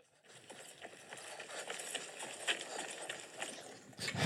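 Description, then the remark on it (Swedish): Rapid running footsteps of a person running to catch a boat pound steadily, a quick regular rhythm of impacts over a constant rushing background noise, with no talking. “Det finns en video uppe på Klipp till podcast när Fabian springer. Ni kan få ljuduttagningen här för att få lite känsla.”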